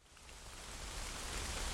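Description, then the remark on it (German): Steady rain falls through the Teutoburg Forest, a dense, even hiss of countless drops pattering on leaves and ground, gently swelling in loudness, with no voices. “Erlebe ich jetzt 30 Minuten lang den herrlichen Klang des Regens im Teutoburger Wald.”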